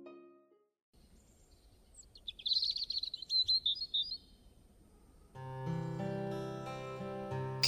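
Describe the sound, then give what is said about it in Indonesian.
A flurry of bright, rapid bird chirps and tweets in the morning rises over a soft, steady outdoor hiss, then fades as gentle music swells in and takes over. “Kicauan burung membangunkanku.”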